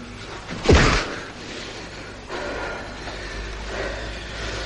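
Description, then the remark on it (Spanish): A single hard, sharp punch to the face, thrown by a young dark-haired man at another man, lands early on, a loud thwack that quickly fades into a low, steady background hum with no voices. “Se miran fijamente y el joven moreno le da un fuerte puñetazo a Chino en la cara.”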